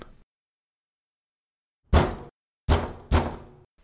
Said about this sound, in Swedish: Det var då vi hörde det knacka på dörren, följt av en röst.